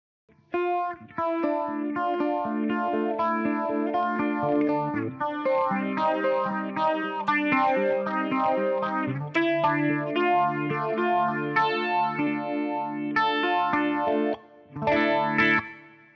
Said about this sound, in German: Also ich der Effekt, also das, das bleibt, der Effekt bleibt ähm, mit dem Chorus dann noch zu dem, zu dem Phaser dazu. Das ist nochmal, das bringt noch irgendwie so ein paar Höhen mit rein und äh, nochmal so, so eine andere Dimension.